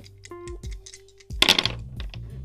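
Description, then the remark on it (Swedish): Several dice clatter onto a tabletop as they are rolled, with a few light clicks followed by a busier burst of rattling and tumbling before they settle, over a faint steady hum. “Slå lite tärningar bara. Så får vi se hur det går. Slå alla dem.”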